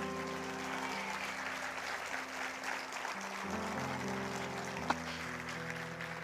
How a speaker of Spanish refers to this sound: Y dar un aplauso al Señor ahí donde está.